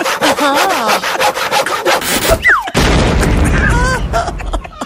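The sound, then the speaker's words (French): Steady, rough rasping of a saw cutting through a wooden chair runs throughout, with a brief break near the middle before resuming. Wavering vocal sounds and sliding squeaky tones ride over the cutting. “Il avait creusé un tunnel sous ta maison et scié sous ta chaise pour que tu tombes dans mes bras.”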